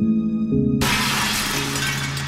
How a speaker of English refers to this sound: Glass shattered again in my memory, and I curled tighter in an effort to protect myself from it